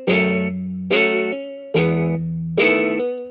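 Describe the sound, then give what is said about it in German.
A synthesized guitar from an Omnisphere plugin sound called Stumming Guitar plays slow, broken chords, four bright strummed attacks about a second apart, each ringing out with rich harmonics and a gentle decay; no voices. “Und der hat so eine ganz weirde Art gehabt, eine ganz langsame Art, so aufgebrochen, diesen Akkord zu spielen.”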